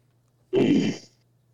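A single sneeze bursts out sharply and fairly loud, lasting about half a second before quiet returns. A faint low hum sits underneath throughout.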